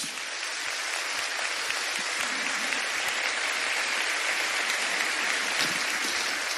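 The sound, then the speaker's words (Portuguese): An audience applauds Jesus steadily, a dense wash of many hands clapping at an even, sustained level for several seconds with no speech over it. “Pode aplaudir a Jesus.”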